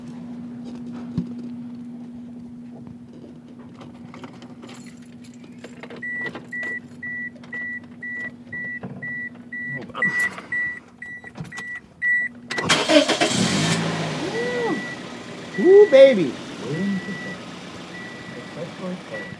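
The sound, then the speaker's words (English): A car engine cranks with a loud burst, then settles into a steady idle, while a repeating electronic warning chime beeps in the background and someone briefly speaks. “Listen to that purr.”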